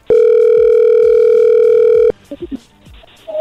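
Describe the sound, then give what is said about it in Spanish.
A loud, steady electronic telephone tone holds one even pitch for about two seconds as a call connects, then cuts off abruptly and a few brief bursts of a voice follow. “A ver, ahí entró la llamada, no haga ruido.”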